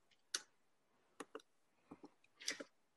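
Scattered, irregular clicks and taps of a woman typing on a computer keyboard, entering inventory with its description, price and category, a few quick keystrokes in bursts with brief pauses, fairly quiet, with no talking.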